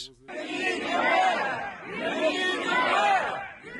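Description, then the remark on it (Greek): A crowd of hundreds of protesting residents and activists in a Ukrainian city shouts the name of the city's mayor in unison, calling on the Russians to release him. The chant rises and falls in loud repeated waves, about three times over a few seconds, with a dense murmur of many voices beneath. “Φωνάζουν το όνομα του Δημάρχου της πόλης και καλούν τους Ρώσους να τον απελευθερώσουν.”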